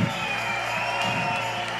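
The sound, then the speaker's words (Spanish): A crowd applauds and cheers in a steady, dense wash of clapping and shouting that holds at an even, fairly loud level for the whole couple of seconds. “aplauso más fuerte.”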